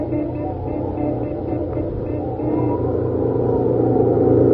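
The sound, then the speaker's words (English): A truck engine roars steadily at full throttle as the truck races to outrun a sandstorm, a loud, dense low rumble that swells even louder partway through and keeps straining without letup. “I bet the truck wide open now.”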